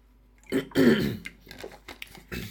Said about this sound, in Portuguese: Vou beber água.